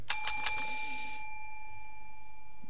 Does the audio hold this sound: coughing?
no